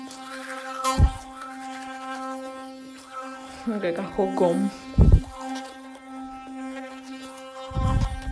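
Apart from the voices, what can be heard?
electric toothbrush buzzing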